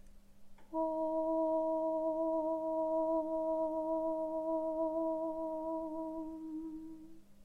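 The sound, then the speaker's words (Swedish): One long hummed meditation tone, held at a steady, very high pitch for about six and a half seconds, even in loudness, then fading at the end, sounded aloud as a tone to think inside one's head. No talking. “Ljudet är oftast orm och så är det av en väldigt hög tonart. Och jag tänker ljuda den högt till dig så att du har ett ton att gå efter.”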